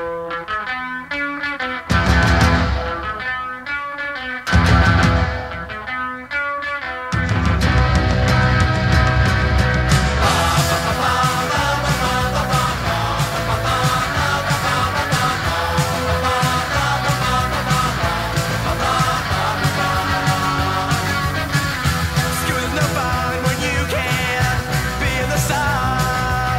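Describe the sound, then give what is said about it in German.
A loud rock song with a full band, opening in choppy stop-start bursts before settling into a steady, driving groove that carries on without pause. “das erste Lied von, von, von ihrem S äh, …”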